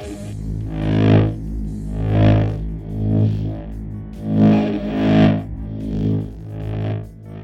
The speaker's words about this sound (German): Zur Unterstützung des elektrischen Sounds haben wir einen Synthi unseres Vertrauens benutzt.